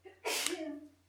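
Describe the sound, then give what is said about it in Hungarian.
A single sharp sneeze bursts out, loud and sudden with a breathy, hissing edge, then trails off quickly into quiet. “Egészségedre.”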